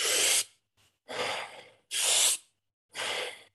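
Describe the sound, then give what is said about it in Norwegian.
Deep, forceful breaths as part of a breathing technique: a sharp inhale, then a long exhale, repeated twice in a steady rhythm with short pauses between, and no talking. “Um, du puster inn ganske dypt, og så puster du ut uten å liksom presse det.”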